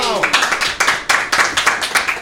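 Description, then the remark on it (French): An audience claps for a couple of seconds during a Buzz Radio broadcast: a loud, steady run of sharp, crisp hand claps. A brief voice is heard at the very start as the clapping begins. “C'est pas mal, on applaudit.”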